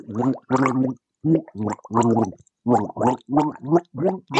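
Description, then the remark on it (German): A voice gargles the melody of a children's song, a bouncy run of about a dozen short bubbling notes in steady rhythm, with no words. “Es hat sich eher äh, angehört wie eine äh, Titelmelodie von irgendeiner Kinderserie.”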